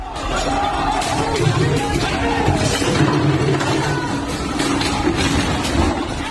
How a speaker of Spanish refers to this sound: Las imágenes recogidas en un vídeo que se ha difundido en las redes sociales muestran el lanzamiento de sillas, de mesas y cristales de un conocido bar de la zona. Este es el sonido.